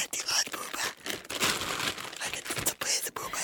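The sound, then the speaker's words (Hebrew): Packaging around dolls brought as a gift rustles and crinkles in a steady run of crisp, papery crackles and scrunches, fairly loud and continuous, with brief pauses between bursts of handling. “שומעים את כל הפשפושים.”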